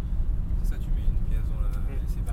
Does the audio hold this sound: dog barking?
no